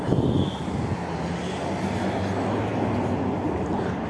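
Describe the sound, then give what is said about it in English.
Steady, loud street traffic with many cars as someone tries to cross the street, a dense low-pitched engine roar that holds constant throughout, vehicles blending into one continuous wash of noise, no voices heard. “Hold on, I'm, I'm trying to cross the street. Hold on. And there's a lot of cars.”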